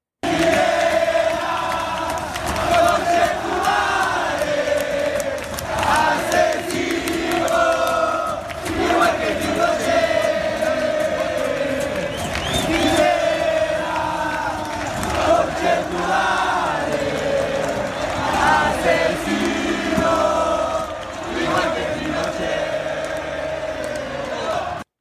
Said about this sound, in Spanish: Bueno, escucharon, claro, es la hinchada del Colo Colo eh, nombrando a Piñera igual que Pinochet. Fuertísimo. Fuertísimo.